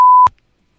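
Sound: censor bleep over profanity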